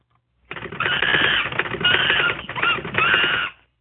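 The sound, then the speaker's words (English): Three bursts of typewriter typing, loud: a dense stream of rapid mechanical key clatter with brief pauses between runs, alone and with no voices, introducing a news segment. “Until then, there's only one more person to introduce, and that's the Typing Monkey.”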